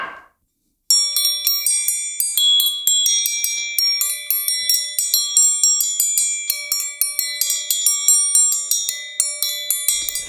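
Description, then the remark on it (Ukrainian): A struck horseshoe rings out in a quick, steady rhythm of bright metallic clinks, each note shimmering briefly before the next hit, played alone after a short silent start. “Так, чому грали на підковах?”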